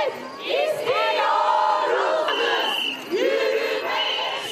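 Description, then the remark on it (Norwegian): A crowd of demonstrators, mostly young women, chants slogans such as "Stop the killings of women" in the streets of Turkish cities. The voices rise and fall in loud, rhythmic unison with repeated phrases, and there is a brief pause before the chant starts again. “Med tydelige og taktfaste rop tar de et oppgjør.”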